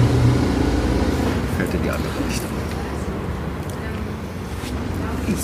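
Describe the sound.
A BMW motorcycle engine starts and rumbles steadily, a continuous low drone with slight fluctuations and a few brief higher noises. Faint, indistinct voices may be mixed in underneath.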